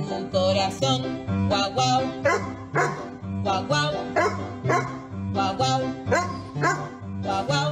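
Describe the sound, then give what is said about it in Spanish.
A dog barks repeatedly in steady rhythm, each bark landing on the beat of loud, continuous music, so the barks sound like part of the song's chorus. “Y yo no sé cómo toda esta gente logra que sus perros Yo hagan eso.”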